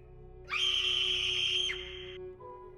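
A young girl's single shrill, piercing scream of pure terror rings out loud, holding one high, steady pitch for about a second before cutting off, with a faint low hum underneath and no talking.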